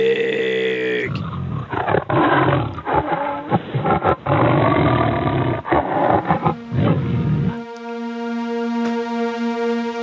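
A loud tiger roar rumbles and snarls for several seconds, framed by a steady electronic tone before and a sustained synth note after.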